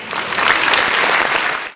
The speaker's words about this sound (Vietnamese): kiểu như thế rất tuyệt vời dành cho bạn một tràng vỗ tay thật lớn